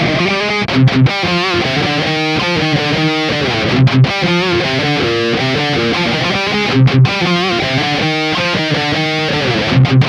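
A heavily distorted electric guitar riff reamped through a 6505 high-gain amp into a Mesa cabinet, loud, with chugging palm-muted rhythms broken by brief stops and ringing chords, played alone with no voices.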